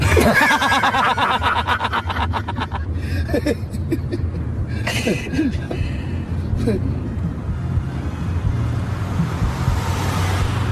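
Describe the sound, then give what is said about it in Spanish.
A car driven by a woman rumbles by, its steady engine drone filling the background, while people chuckle and murmur over it early on before the road noise carries on alone. “El psicólogo ve una mujer atractiva que pasa en su auto.”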